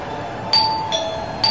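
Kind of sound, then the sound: signal or alarm, doorbell ringing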